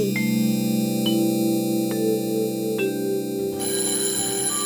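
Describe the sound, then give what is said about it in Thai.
A school bell rings to call pupils to class, in a loud, steady electronic tone with faint regular clicks, holding for several seconds before shifting to a brighter pitch near the end, with no voices. “เอ๊ะเสียงออดดังแล้ว อุ้ยต้องไปเข้าเรียนแล้วล่ะค่ะ”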